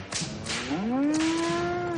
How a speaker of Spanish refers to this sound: Tras un cristal, varios umpalumpas golpean una vaca que está colgada del pecho.